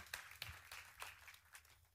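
A light, brief ripple of applause from a small audience for a woman about to read verses from Acts chapter five, scattered claps blending into a soft patter, with no voices over it.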